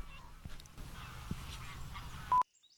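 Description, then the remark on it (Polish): Cranes call repeatedly over a steady outdoor background in a dry park, their honking cries overlapping and mixing with the sounds of hundreds of grazing cows and bellowing bulls, before a sharp click cuts everything to near silence. “Być może trochę tych dźwięków słyszycie w tle.”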